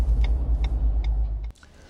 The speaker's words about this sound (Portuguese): encontramos um gigantesco comboio de caminhões militares